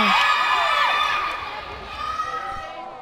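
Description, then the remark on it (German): A crowd of children in a camp cheers and shouts excitedly during a football game in its seventh round, a dense, high-pitched wash of voices that stays loud throughout and eases slightly toward the end. “Wie kannst du bei diesem Lärm schlafen? Die Kinder haben schon die siebte Runde angefangen.”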